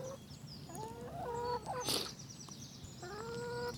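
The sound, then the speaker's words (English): Several hens cluck and murmur in overlapping calls, with a brief scratchy rustle partway through and a steady low farmyard rumble underneath. No one speaks. “Seeing them cluck about and get on with each other.”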